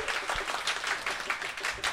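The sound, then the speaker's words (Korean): An audience at a talk applauds steadily for about two seconds after the speaker thanks them, a dense wash of many hands clapping at moderate loudness, with no speech over it. “박수 부탁드립니다.”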